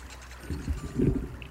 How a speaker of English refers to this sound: So he quickly ran out to the well in the courtyard and lowered a bucket down into the cool water far below.